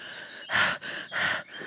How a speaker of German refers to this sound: schnaufst oder dass die Stimme so brüchig wird.